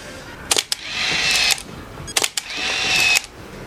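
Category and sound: machine, camera shutter clicking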